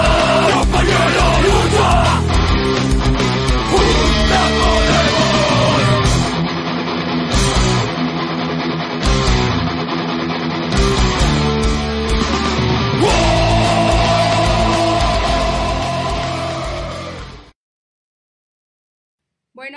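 A loud, dense rock song with shouted group vocals on the chorus plays at full volume, then ends abruptly, leaving a couple of seconds of silence.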